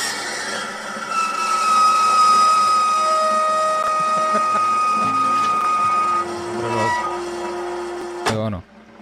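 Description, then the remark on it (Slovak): A coffee machine grinds loudly and steadily, a harsh mechanical rattle laced with high whining tones, before cutting off abruptly with a brief rising-and-falling mechanical sweep at the end. “Nie, mne nepríde, že ten zvuk, ktorý vydáva tvoj kávovar, že je úplne OK.”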